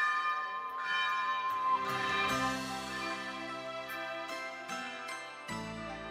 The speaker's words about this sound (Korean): 1954년 어려움 가운데서도 교인들의 사랑으로 세워진 이 종은 세월의 흔적을 고스란히 안고 있었습니다. 많이 부식되고 페인트는 벗겨졌지만 힘차게 울려 퍼지는 종소리는 여전히 은혜롭게 가슴 속에 남아 있습니다.